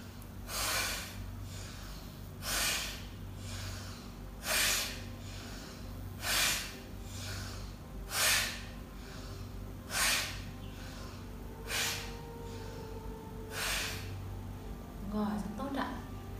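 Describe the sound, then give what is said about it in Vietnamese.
Steady cycle of about eight forceful breaths, deep inhales followed by strong exhales, each a sharp, airy rush of air repeating every two seconds, fairly loud over a low background hum, done as a breathing exercise while gently massaging and stretching the bridge of the nose. “chúng ta kết hợp với hơi thở là hít vào thật sâu rồi thở ra thật mạnh vừa hít thở và vừa làm động tác này để chúng ta thanh tẩy toàn bộ những cái khí dư và cái hệ thống hô hấp của mình”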